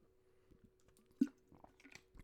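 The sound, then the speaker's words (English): Sipping of Perrier sparkling water, with soft wet mouth noises, one sharp gulp near the middle and a few quieter swallows after it. No talking. “Excuse me, a little sip of Perrier there.”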